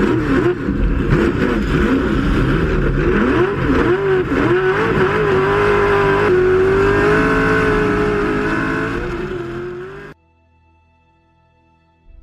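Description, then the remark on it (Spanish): Several race car engines, a Jaguar among them, roar and rev loudly as the cars pull away from the start of the 24-hour Le Mans race in the midday heat, a dense, continuous howl of rising and falling engine pitches that cuts off abruptly near the end. “se dio la salida, con el Jaguar de Duncan y Tony entre los coches participantes”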